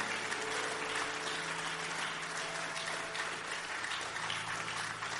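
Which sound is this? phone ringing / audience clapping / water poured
audience clapping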